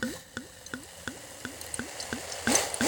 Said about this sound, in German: So, dann, liebe Zuhörer, dann können Sie jetzt mal hören, wie dieser wunderbare Cremant ins Glas